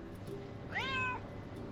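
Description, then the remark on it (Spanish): A single clear meow from a domestic cat waiting at the door as a person arrives, rising then falling and lasting about half a second, over a low steady background hum with no talking. “Ella llega y normalmente uno de mis gatos siempre está eh, en la puerta esperándole. Y cuando ella llega, se ponen a hablar.”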